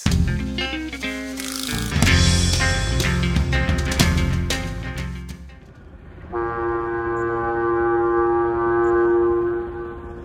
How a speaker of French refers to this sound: Ce soir-là, l'épais brouillard humide, le ronronnement des moteurs de l'abeille Flandre et la corne de brume qui résonnait au loin donnaient une atmosphère lugubre au port de commerce.